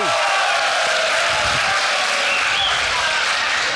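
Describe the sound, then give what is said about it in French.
An audience at a school applauds after a question, with dense, steady clapping that stays loud and even for about four seconds, with no one speaking over it. “Je vous félicite, hein, la première fois dans une école que j'entends applaudir après chaque question.”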